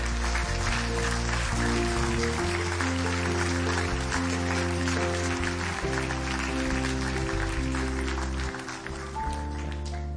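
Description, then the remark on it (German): Sustained audience applause welcoming people back, dense and steady with many hands clapping at once, loud and continuous for the whole stretch while organ-like music plays underneath. “Und ich würde jetzt gerne auch bildhaft, symbolisch im Auftrag von Jesus all diese Menschen mit einem kräftigen Applaus willkommen heißen.”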